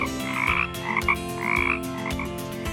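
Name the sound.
frog or toad croaking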